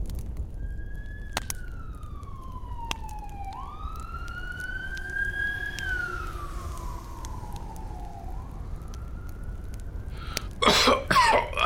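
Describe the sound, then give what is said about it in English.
An emergency vehicle siren, coming during a fire at a shop, wails steadily, its pitch sliding slowly up and down over several seconds at moderate volume, then a short burst of coughing or throat clearing cuts in at the end. “I, I hear the sirens.”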